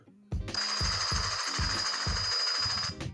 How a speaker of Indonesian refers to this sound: helikopter